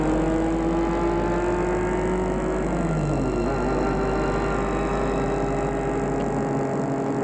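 car driving

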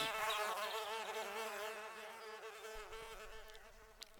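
insect wings buzzing

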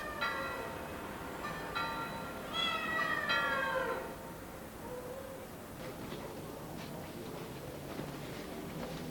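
cat meowing

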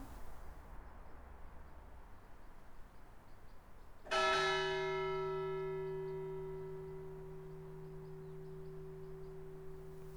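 church bells ringing

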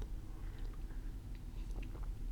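sipping coffee

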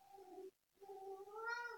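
cat meowing

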